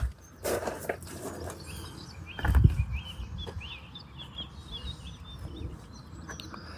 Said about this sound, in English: Hello, that's the cockerel. Oh no, it's not, it's a hen.